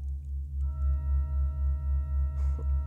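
A pipe organ in the Burchardi church in the German town of Albestadt holds a steady, sustained chord that drones on unchanging, with deep low tones that throb in a slow, even beating pulse and a few thin higher notes held above; the experimental piece is not due to finish until 2640.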